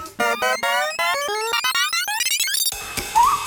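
A short 'aha' sound-effect jingle: a quick run of bright, voice-like tones climbs steadily in pitch, note after note, then gives way to a brief noisy, chaotic flourish at the end.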